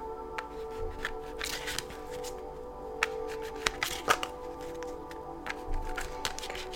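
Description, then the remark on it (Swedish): Card shuffling with a string of crisp riffles and sharp snaps, followed by cards being drawn and flicked during a card reading. A faint steady hum sits underneath, and no one speaks. “Alla lejon, ni fick kortet nej.”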